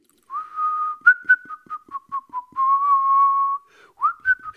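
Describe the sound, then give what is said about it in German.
A man whistles a lively tune alone, clear, with a long held note, a run of short bouncy notes, then another sustained note and a quick rising flourish at the end. “Also wenn ich so total glücklich rumwandere, äh, ich bin jetzt auch nicht so ein Pfeifer, aber wenn ich dann Pfeifer, pfeife, dann ist immer das gleiche Song, ist immer der gleiche Song.”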